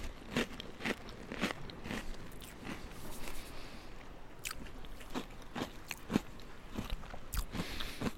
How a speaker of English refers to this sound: I do love something crunchy, but then the softness, an actual tanginess of the cheese. Actually, that's quite tangy.